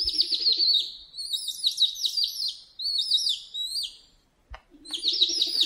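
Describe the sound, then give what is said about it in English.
A recording of a little owl's trilling call: bursts of rapid, high-pitched chirping notes repeating in quick runs, clear, with a short pause before the calls resume. No talking. “To the uh, the trill of the the little owl, so that we can at least start to hear what these owls sound like.”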